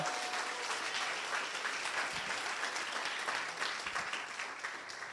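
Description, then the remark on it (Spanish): An audience at a church service breaks into sustained, loud applause for the Lord at the pastor's call, a dense wash of many hands clapping at once that holds steady for several seconds before easing slightly at the end. “Pero un aplauso fuerte al Señor.”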